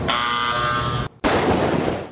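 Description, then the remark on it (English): Man-made lightning created by scientists in a lab at the Bonneville Power Administration in Washington State: a steady, harsh electrical buzz for about a second, a brief silence, then a loud, broad crackling roar that holds to the end. “This is what man made lightning looks like.”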